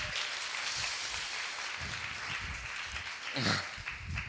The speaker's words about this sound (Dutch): Maar geef hem een groot applaus.